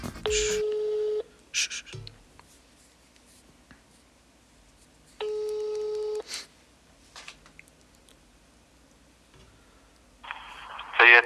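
Telephone call tones of a call being dialed to a number in Puebla: two steady, evenly pitched ring tones, each lasting about a second, separated by quiet pauses, with brief scratchy noises and a burst of muffled sound at the end.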